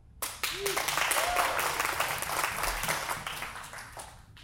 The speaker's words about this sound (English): And two and a half years later, the church went from what you see here by teaching the Word of God, go to that next, that next slide, to this. You can clap.